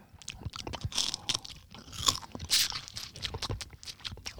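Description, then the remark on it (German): Repeated crunching of a crispy seaweed snack being chewed, with irregular crackly bites and brittle scraping textures over several seconds, no voices. “Wenn du es knusperst und runterschluckst, geht es”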